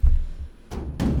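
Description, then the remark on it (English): A few hollow, booming knocks on an empty metal flat file cabinet, fairly loud, with deep resonant thuds and a short ring after each hit. Nobody speaks. “That's the noise of an empty flat file.”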